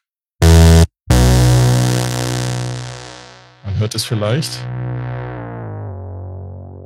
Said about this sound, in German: Und das Ding klang, klingt aber wirklich gut, dieser, dieser Minimoog, dieser virtuelle, dieser äh, i-Minimoog.